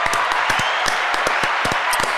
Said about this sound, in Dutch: Ja, ik heb een applaus klaarstaan.